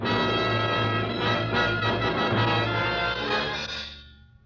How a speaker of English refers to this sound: Church bell? Oh, yes, yes, of course. Church bells are on God's side.